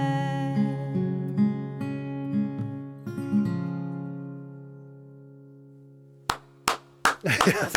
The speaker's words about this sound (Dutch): ik heb ook nog een applausmachine hier oh. hoor, onder de knop, maar eh, dat vind ik dan weer zo.